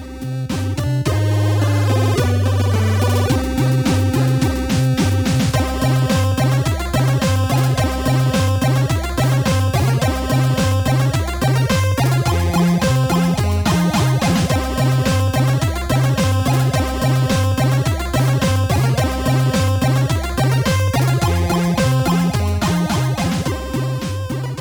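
Bright, buzzy chiptune music from the Asterix video game soundtrack, with chords broken into individual notes rapidly alternated to imitate chords on a monophonic sound chip, over a steady pulsing bassline, played loud and continuous with no talking.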